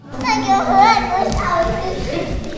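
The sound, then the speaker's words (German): Several young children aged 4 to 7 chatter and squeal together in the last minutes of a dance class, their high voices overlapping continuously with bursts of excited shouting and playful noise. “Die Kinder haben sichtlich und hörbar Spaß, sowie alle Beteiligten.”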